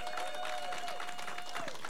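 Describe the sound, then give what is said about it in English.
An audience gives the Lord a hand clap for his word after preaching, breaking into steady hand clapping, a dense, continuous patter of many hands that fills the whole moment, with a faint sustained tone running beneath it. “Can we give the Lord a hand clap for his word?”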